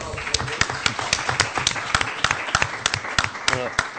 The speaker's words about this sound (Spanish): Un aplauso para este hombre, por favor.